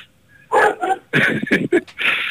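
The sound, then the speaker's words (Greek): A female dog barks several times in quick, uneven bursts, loud, with short gaps between the sharp yaps and no voices over them. “Αυτή είναι η σκύλα μου, συγγνώμη που έχουμε, έχουμε καλεσμένη.”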